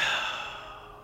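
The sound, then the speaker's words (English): A single breathy exhale, a soft airy whoosh that starts strong and gradually fades out over about a second, like a deep relaxing sigh with no talking. “Deep breathing”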